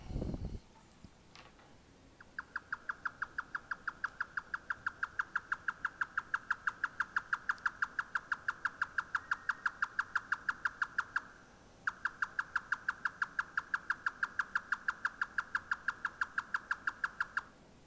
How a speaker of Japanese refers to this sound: これは私があのゲームをしてるわけじゃなくてですね、これ本当にあの、実際の生き物の鳴き声です。はい。あの、鳥の鳴き声ですから。これはですね、えー、ヨタカと呼ばれる鳥ですね、ヨタカ。あまり聞いたことないかもしれませんけども、ヨタカ。